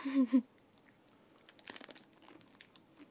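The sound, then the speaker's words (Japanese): A brief voice at the start gives way to crisp crunching and soft chewing from biting into a chocolate-coated snack with a strawberry inside, eaten as an afternoon snack, a quick cluster of bites followed by quieter munching. “今日のおやつはえっとこれ中にいちごが入ってる、はい私の大好きなイチゴそうなんか周りがチョコでコーティングされてて中生クリームだったかないただきます”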